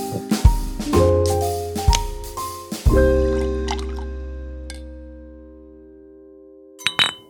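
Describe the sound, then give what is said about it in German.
Glass bottles clink together in a toast four times in quick, uneven succession, each strike leaving a bright ringing tone that slowly fades, followed by a couple of lighter taps at the end. “Lass uns mal timen, ob wir das am Ende mit dem Klingen, mit den Flaschen hier parallel hinbekommen.”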